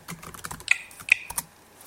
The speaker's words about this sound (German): So, ich stehe jetzt sofort im Kennwortfeld und kann mein Kennwort eingeben.